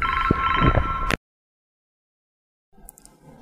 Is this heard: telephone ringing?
yes